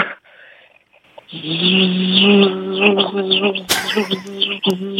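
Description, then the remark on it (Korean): A steady, loud, nasal buzzing drone, likely a voice imitating a cicada, played on Park Myung-soo's Radio Show as the answer to a weekend quiz, starts after a second of quiet and holds for several seconds with slight wavering and a brief break near the end. “여러분께 내드렸던 주말의 퀴즈의 정답은 매미였어요, 매미.”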